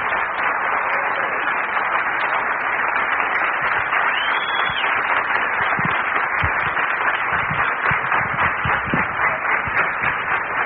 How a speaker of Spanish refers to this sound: quiero que, que lo reciban con aplauso porque gracias a él pues es que estamos viviendo todos esos sueños que estamos teniendo hoy en día.